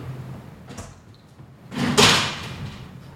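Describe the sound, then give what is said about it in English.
A refrigerator door is pulled open with a soft rush and swung shut with a muffled thud, followed by a brief rattle, as someone gets a water from it, with no talking. “I'm walking over to the refrigerator to get a water.”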